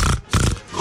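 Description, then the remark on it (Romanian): A person imitates a pig with two loud, rough grunts in quick succession, with a brief dip between them and no other talking. “Era un porc fantomă.”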